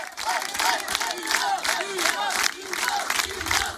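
A concert audience at a sold-out show at the Cèdre in Chenauve applauds and cheers a band loudly and steadily for a few seconds, with scattered whoops and shouts rising above the dense wash of clapping.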